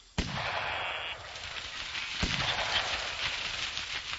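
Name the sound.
shotgun shot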